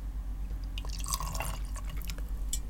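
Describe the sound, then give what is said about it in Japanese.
A drink being poured: scattered liquid splashes and drips with brief bright clinks, over a steady low hum, no talking. “まずは飲み物を用意しましょう。”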